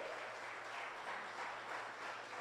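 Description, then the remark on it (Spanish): An audience breaks into sustained applause for the Lord, a dense, steady wash of many hands clapping at once, fairly loud and continuous throughout, with no voices standing out. “Dale un aplauso fuerte al Señor, ese Dios todopoderoso.”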